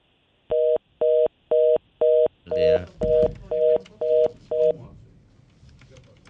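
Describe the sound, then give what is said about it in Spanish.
A malfunctioning telephone sounds about nine loud, evenly spaced two-tone beeps, like dialing tones, over roughly four seconds, with muffled voices and noise creeping in beneath the later beeps before fading out. “Eh, eh, el teléfono está jodiendo.”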